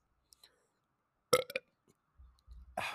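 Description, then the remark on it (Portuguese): A loud burp erupts around the middle, short and throaty, followed by a couple of faint low rumbles and a breathy exhale at the end; no talking. “Mas antes eu vou precisar arrotar, com licença.”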